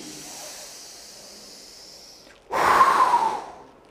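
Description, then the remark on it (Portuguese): A voice imitates the last dying breath of Jesus Christ: a soft airy inhale, a brief pause, then one long, forceful breathy exhale that fades out, alone with no talking. “Vamos dizer, até textualizando, ilustrando, foi assim aquele último suspiro.”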